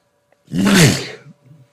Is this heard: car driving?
no